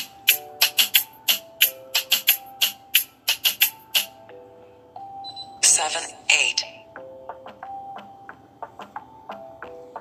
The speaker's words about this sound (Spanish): Aquí están los teléfonos sonando.